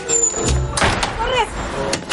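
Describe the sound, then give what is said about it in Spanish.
Torres swings a door shut with a single solid thud about a second in, followed by a brief higher squeak and some low background rumble. “Torres cierra la puerta.”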